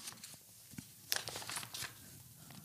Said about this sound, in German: Für alle Hörer und Hörerinnen, sie blättert in ihren umfangreichen Aufzeichnungen von biblischen Ausmaßen.